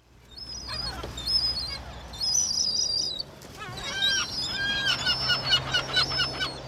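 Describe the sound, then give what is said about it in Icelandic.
Gulls calling at Reykjavík's city pond (Tjörnin), Iceland, being lured with a bread roll. A busy chorus of shrill, squealing cries overlaps and repeats throughout and grows denser toward the end, over a low background rumble. “Við stálumst til að hérna, taka með okkur eina bröðbólu hérna til að lokka okkur máfana um því að ég er svo forvitin um máfana”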